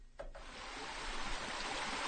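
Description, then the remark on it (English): Pond water rushes and gurgles steadily through two enormous fish tanks at a water treatment facility in Petersburg, a continuous splashing flow that swells slightly louder toward the end, with no voices. “The air is thick with the smell of mud and algae from the pond water gurgling through the tanks, and the slight odor of fish.”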